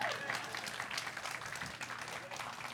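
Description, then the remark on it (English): An audience at a homeschooling group meeting applauds steadily, many hands clapping in a dense, continuous patter for a few seconds at moderate volume, with no one speaking over it. “You can clap. Go ahead.”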